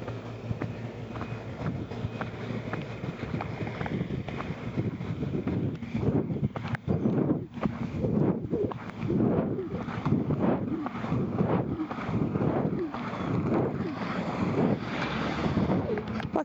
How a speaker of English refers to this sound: Besides that, it's so eerily quiet the wind will go and then it'll stop.